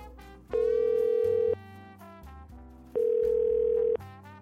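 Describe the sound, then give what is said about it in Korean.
A phone ringback tone sounds twice as a call is placed to a parent, each steady electronic burst lasting about a second with a pause between, heard over soft background music with no one talking. “야, 전화 드려, 얼른. 아, 아 알겠다고. 내 네, 전화한다고.”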